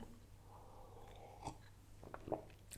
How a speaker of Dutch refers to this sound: Het eerste wat ik doe is eventjes een slokje water nemen.